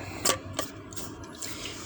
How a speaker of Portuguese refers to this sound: Deixa eu tomar água. tá muito gelada. Merda. É garrafa térmica, né? E vai ficar gelada para sempre a água.